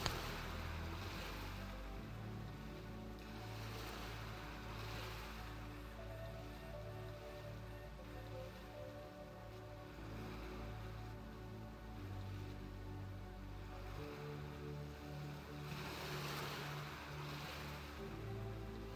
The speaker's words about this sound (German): Du kannst das gleichmäßige Auf und Ab der Wellen betrachten und der Rhythmus des Meeres bringt dich zur Ruhe. Auf und ab, auf und ab bewegen sich die Wellen.